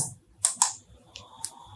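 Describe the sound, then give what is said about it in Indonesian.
A small torn scrap of paper, written on during an event and marked with a smile emoticon, is handled, giving a few crisp, brief crackles and taps spaced unevenly over a quiet background with no talking. “sobekan kertas yang aku tulis di waktu acara itu dan aku buat smile emoticon”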